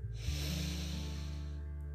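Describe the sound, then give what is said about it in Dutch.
A deep, drawn-out inhalation through the nose from the belly, steady, lasting nearly two seconds as a single continuous airy rush over a faint low hum. “Adem in en uit.”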